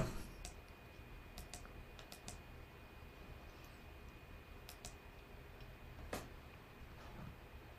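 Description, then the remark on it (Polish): Soft computer clicking, a scattered series of sharp, quick clicks at irregular intervals, with a couple of slightly louder ones, over a quiet low background hum, as someone clicks to mute their own audio and start playing a recording. No one speaks. “E, ponieważ mi brakuje słów, to już nie będę więcej mówił, tylko kliknąłem sobie i ja muszę siebie wyciszyć, żebyście nie mieli pogłosu i już wam to puszczam.”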